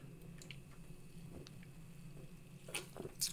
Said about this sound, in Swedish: Ja, hopp. Ska vi ta en klunk påskmust?